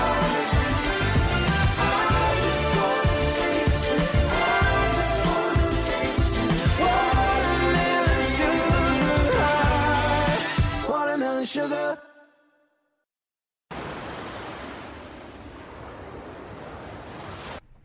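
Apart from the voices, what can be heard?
pop song playing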